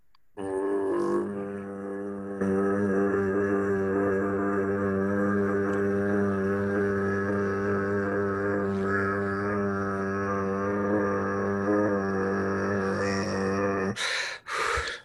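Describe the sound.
A voice imitates Mongolian throat singing: one deep, buzzing drone with ringing overtones, held steadily and loudly for about fourteen seconds before breaking off abruptly.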